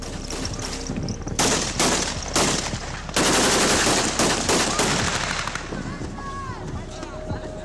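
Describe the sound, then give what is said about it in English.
Repeated bursts of celebratory gunfire crackle outdoors at Gaddafi's former compound, turned into a makeshift fairground, some single shots and some rapid volleys, loud, with wind and indistinct voices in the background. “Now his compound had become a makeshift fairground, complete with lots of celebratory gunfire, souvenirs, and a general carnival atmosphere.”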